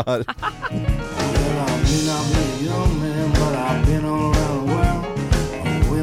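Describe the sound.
A recorded song plays loudly and continuously, with a man's singing voice gliding over a steady, thumping beat and layered instrumental backing.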